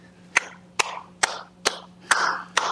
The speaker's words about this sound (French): Je ne cesse d'applaudir depuis.